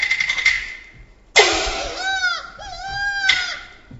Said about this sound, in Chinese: 臣弟，这庄河之中为何有婴儿的哭声？ 这不是平常的婴孩， 他是哪个？ 他就是当今的太子。